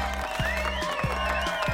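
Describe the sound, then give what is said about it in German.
A crowd applauds and cheers steadily as Rihanna takes off her long coat at the sales launch of her Puma fashion collection, a dense wash of clapping with brief bursts, loud and continuous throughout. “Rihanna zieht ihren langen Mantel aus und die Menge jubelt.”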